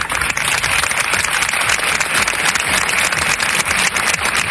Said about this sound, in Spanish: Con este interminable aplauso en la plaza del Ayuntamiento de Valencia, ante cientos de vecinos afectados,